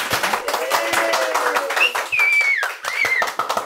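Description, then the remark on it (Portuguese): A studio audience at a Hospital de Amor 60th anniversary special bursts into sustained applause for the production team, dense overlapping loud clapping, with whistles and shouts rising above the crowd. “Eu quero que receba com uma salva de palmas todo mundo da produção, por favor.”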